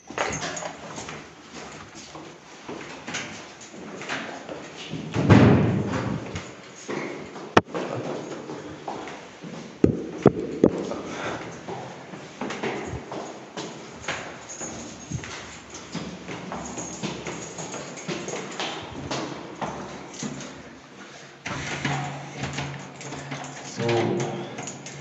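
Soft, uneven footsteps of people walking quietly through an echoing stairwell, with a few sharper knocks and thuds standing out along the way. Nobody speaks.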